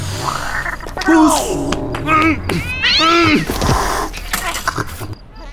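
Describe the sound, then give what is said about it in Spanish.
A kitten meows repeatedly, several high, plaintive cries in quick succession, fairly loud, with a few shorter squeaky mews between them over a low background hum. “Porque entonces este gatito no es tuyo.”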